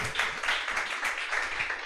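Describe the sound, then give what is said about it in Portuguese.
A church audience applauds God steadily, a dense, sustained wash of many hands clapping at once, moderately loud and filling the whole stretch without any talking over it. “Quantos podem dar uma salva de palmas para Deus?”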